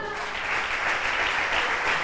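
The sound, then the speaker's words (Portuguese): A crowd claps steadily and densely throughout, applauding the Lord, a sustained wash of applause from many hands, with faint voices mixed in beneath it. “Pode aplaudir o Senhor.”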